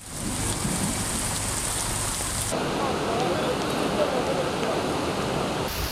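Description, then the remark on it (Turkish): Heavy rain pours down in Istanbul in a steady, dense hiss that stays loud throughout, its texture shifting partway through as the downpour grows harsher and more spattering; the storm brought flooding and hail. “bir yakada yağmur şiddetini arttırırken Diğer yaka henüz günlük güneşlikti.”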